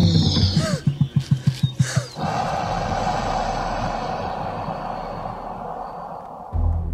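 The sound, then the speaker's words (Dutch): A reconstructed dinosaur call, part crocodile and part bird, more an air blast with some tone added than a roar: a quick run of about eight deep, throaty pulses, then a long, breathy low rumble that holds steady, loud, with no talking. “Een krokodil en een, eh, een of andere grote loofvogel. Van brullen moet zeker geen sprake geweest zijn.”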